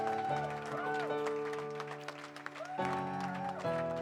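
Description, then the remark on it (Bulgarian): A church audience applauds steadily throughout a sermon, the clapping blending with sustained organ-like music and voices that swell and glide in pitch. “О, вие може да ръкопляскате по-добре, аз съм сигурен в това.”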